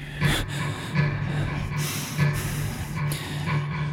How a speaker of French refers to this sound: J'essaie de me calmer, mais plus j'y pense, plus ma respiration se fait forte.